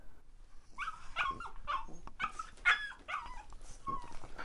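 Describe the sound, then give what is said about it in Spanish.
A small, brown terrier puppy with long ears whimpers and yips in a string of high, whiny cries mixed with short barks, fairly loud, with no talking. “Una vez con mis propios ahorros me compré un cachorro de terrier, un perro hermoso, juguetón, chiquitito, marrón con las orejas largas.”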